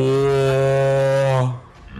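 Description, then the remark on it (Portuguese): A single loud, low, brassy ship-horn blast used in a film soundtrack holds steady for about a second and a half, rich in overtones, then cuts off and fades into a quieter rumble. “A única coisa que eu não gostei foi é, essa trilha sonora que tá virando. Eh, padrão, é, né? O, a padrão. buzina de navio, né?”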